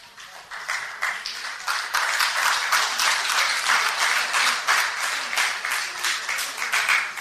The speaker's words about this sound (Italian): Sì, questo applauso non mi dice proprio nulla, eh? Proprio nulla.